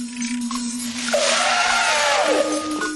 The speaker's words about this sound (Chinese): 那是象宝宝的叫声吗？没错， 我们找到象宝宝了！